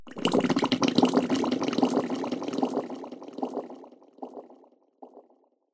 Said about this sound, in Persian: برخی از آنها که تنبلی کردند به عمق دریاچه بویناک استیکس فرو برده می شوند و چون می خواهند تنفس کنند حباب هایی بر روی سطح گلالود دریاچه ظاهر می شود.